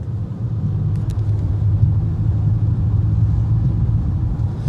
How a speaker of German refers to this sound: Und ich denke mir, welche Scheiße hier im Auto vibriert schon wieder. Hört ihr das?